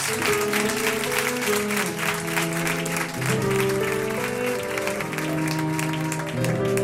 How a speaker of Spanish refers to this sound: Un aplauso